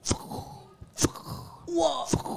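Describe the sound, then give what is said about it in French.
A voice imitates a tennis ball being struck with sharp, percussive mouth pops, three quick hits spaced about a second apart, fairly loud, with some breathy vocal sounds between them. “Alors, par ah exemple, pour faire la balle de tennis.”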